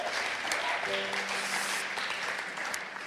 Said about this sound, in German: Lass uns Gott für das einen Applaus geben. Come on, Tupperware Gott. Woo!